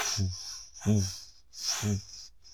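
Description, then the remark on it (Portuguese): A human voice imitates the angry snarl of a thylacine (Tasmanian wolf): three harsh, breathy hissing bursts with a low growling rasp, evenly spaced, moderately loud, with no other talk. “Nós não temos gravações dos sons do lobo da Tasmânia, mas quem estudou esse bicho diz que ele esbravejava de ódio.”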